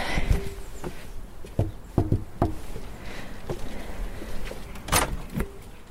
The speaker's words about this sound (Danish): Prøv lige at banke på.